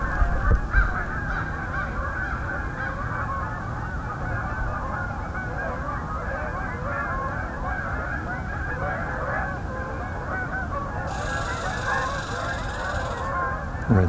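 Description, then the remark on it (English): A large incoming flock of Canada geese honks continuously overhead in flight, dense overlapping calls forming a loud, steady clamor that holds throughout with no one speaking. “This is an incoming flight of Canada geese.”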